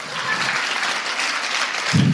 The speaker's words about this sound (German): Das ist jetzt normalerweise der Zeitpunkt, wo ihr klatscht.